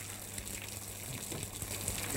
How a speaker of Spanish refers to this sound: no hay nada. Nada. Solo lluvia.